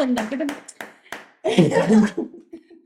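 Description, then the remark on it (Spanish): Several soft, quick hand claps in an uneven flamenco-style rhythm, followed by people talking and laughing over them. “Como aplaudiendo así. Sí, la verdad, ya más suavito.”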